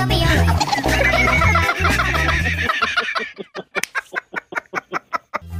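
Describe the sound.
A dense burst of music gives way to a quick, evenly spaced run of about a dozen sharp clucking sounds, likely a voice imitating a chicken, loud.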